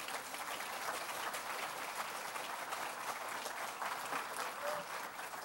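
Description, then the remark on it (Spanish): A church audience applauds the Lord steadily, a dense wash of many hands clapping at once that stays loud and even throughout without pause, with no one speaking over it. “Y si usted quiere, le puede dar un buen aplauso al Señor.”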